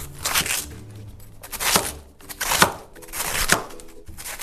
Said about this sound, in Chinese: 切菜，切菜。